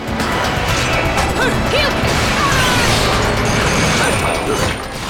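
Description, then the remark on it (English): Loud, dense video game combat noise: an angel enemy's repeated punching impacts crash into a Valkyrie military transport plane amid a constant roar, with a few whistling sweeps layered on top and no clear talking. “There's an angel that's like punching into. It's like punching into the plane.”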